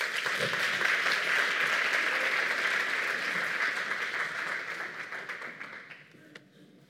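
A steady round of applause from a crowd, many hands clapping in a dense, even patter that holds for several seconds before thinning and fading out with a few last claps.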